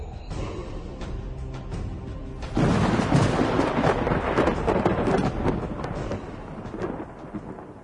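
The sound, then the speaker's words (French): A thunder sound effect: a steady rumbling storm bed suddenly swells into a loud, broad crash of thunder about a third of the way in, then rolls on and slowly fades, with no voices. “je vais rajouter du vent puis de la musique solennelle. Oh, ça va être euh, malade. De la musique viking là. Des éclairs.”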